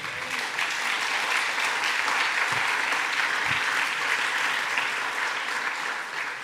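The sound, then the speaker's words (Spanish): A church audience claps steadily and densely for several seconds as applause for the Lord, a continuous wash of many hands at even loudness, with no talking over it. “Dele otro aplauso al Señor gigante, venga.”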